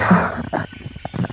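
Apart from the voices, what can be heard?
sneeze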